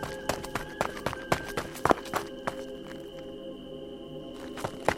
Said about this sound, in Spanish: Los pasos se escucharon corriendo de regreso.